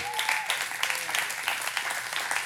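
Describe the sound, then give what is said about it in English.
An audience claps steadily, a dense wash of many hands with sharp repeated hits, fairly loud and continuous with no one speaking over it. “Well, if you're going to clap, go ahead and clap your hands and come on.”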